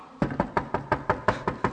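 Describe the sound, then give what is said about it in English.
A rapid, steady series of about ten knocks on a door, moderately loud, with no voices. “keeps knocking.”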